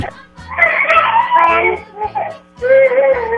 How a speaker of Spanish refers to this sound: A ver, no me, no me escucha nada porque está un niño llorando por ahí. A ver, que no llore el niño porque si no, no nos escucha nada.